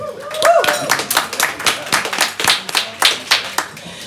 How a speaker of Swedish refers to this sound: Värt en applåd tycker jag.